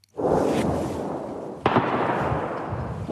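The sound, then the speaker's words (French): Bombs exploding in the village of Tchassiviar, 15 km from Barmouth: a sustained, rumbling roar of blasts, with a sharp, loud detonation about halfway through followed by continued crackling thunder. No voices are heard. “Dans le village de Tchassiviar, le son des bombes éclate à chaque instant.”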